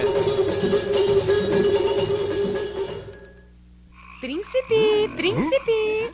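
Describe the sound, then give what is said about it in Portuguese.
A dense chorus of toad croaking fills the first few seconds, fades into a brief lull, then returns as a run of loud, repeated croaks with rising and falling pitch. “Um príncipe tão lindo, agora um sapo tão feio.”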